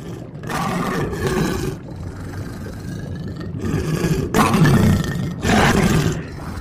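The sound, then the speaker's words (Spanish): Cerberus, a huge three-headed dog, roars and snarls in a series of loud, deep, growling bursts, about four overlapping roars over a constant low rumble, with no one talking. “Cerbero, un perro enorme y de tres cabezas, devoraba una y otra vez a los condenados.”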